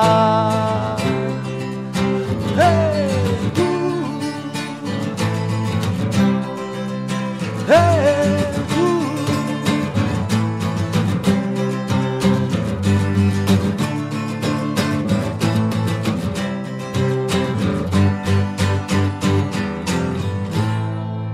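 A full band song plays steadily with a sung vocal melody gliding over bright, rhythmic guitars and drums, loud and close throughout with no talking.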